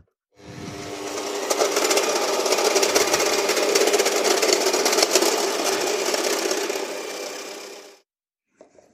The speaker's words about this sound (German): Okay, und dann geht's jetzt die Küchenmaschine an. Keine Sorge, ich schneide das ganze Gebrüll nachher raus, also so ein bisschen, bisschen fürs Gefühl lasse ich dran